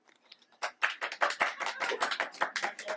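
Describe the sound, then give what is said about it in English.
Audience applause breaks out after a soft start and keeps going as a dense, steady patter of many hands clapping at once, fairly loud and unbroken to the end. “okay, round of applause.”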